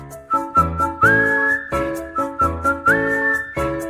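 A simple, playful tune is whistled clearly, with bright sliding notes and held tones over a bouncy, steady rhythmic backing with regular beats.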